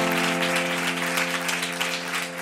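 An audience at a live Cadena 100 radio session at the Jarro Café in Madrid applauds steadily, a dense, continuous wash of many hands clapping at full volume for a couple of seconds, with a sustained droning tone running underneath.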